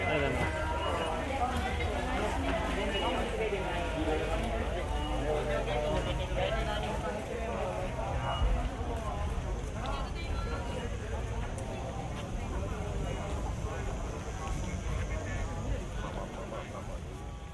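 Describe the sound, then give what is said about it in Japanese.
Steady, busy outdoor ambience of the Fuji Rock music festival grounds, in a binaural recording: a dense wash of crowd chatter and overlapping voices with scattered footsteps and clatter, spatially spread, holding a constant loud level throughout. “バイノーラル録音いかがでしたでしょうかおまけですからねこれはねあくまでね来年はね現場で富士の雰囲気を楽しみましょう。”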